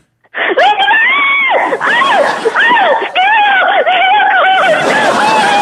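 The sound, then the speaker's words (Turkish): A woman screams loudly and continuously, a series of strained, wavering cries that rise and fall in pitch, like someone in the pain of labor. “3, 2, 1 deyince sizin ilk çığlığınızla başlıyor.”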